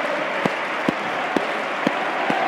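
A large stadium crowd of Bolton and visiting Lions fans at a football match applauds in the 33rd minute, a steady, dense wash of clapping with sharper louder claps punching through at a regular beat roughly twice per second. No one speaks.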